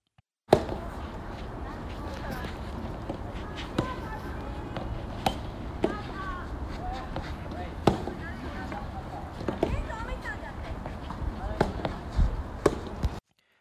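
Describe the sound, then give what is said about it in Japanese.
Soft tennis balls being hit back and forth around 5 p.m. by a child and club team members practising under a coach: sharp, popping thwacks every second or two at an uneven rhythm, over a steady bed of chatter and background voices. “私の息子が12月26日に開催されるソフトテニスのクリスマスカップというという大会に参加するため、えー、コーチの指導のもとクラブチームのメンバーと一緒にボールを打ち合っている音です。”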